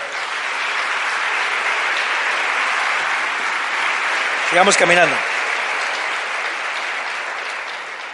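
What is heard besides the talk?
audience applauding loudly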